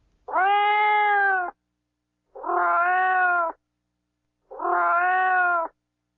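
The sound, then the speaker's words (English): A cat meows three times in a slow, even rhythm, each call drawn out for about a second with short silent gaps between, loud with no other sounds. “Cats meow.”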